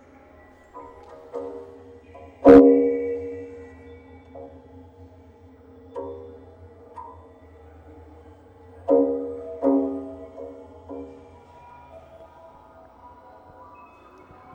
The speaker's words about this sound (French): Nous allons tester on était sur les évacuations, là on va tester, euh, je ne sais pas exactement ce que c'est, c'est une sorte euh, d'évacuation en plomb. On va tester le son.